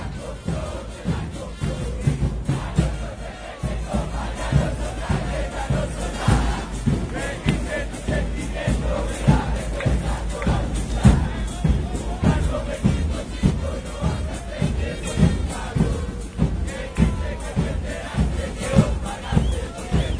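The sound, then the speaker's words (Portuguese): A huge stadium crowd of Independiente Medellín football supporters in Medellín, Colombia chants loudly and continuously for the whole stretch, a dense wall of voices pulsing with a steady rhythmic beat. “Medellín, Colômbia querida, ouviremos Independente de Medellín, número 7, sétimo lugar no programa Top 10, Som das Torcidas, número 50.”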